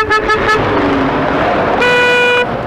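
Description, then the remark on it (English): Busy road noise with several car horns honking: a few short toots near the start, then one long sustained blare toward the end over a steady wash of passing traffic. “No rest from danger, though, because all around us is that deadly daily danger, traffic.”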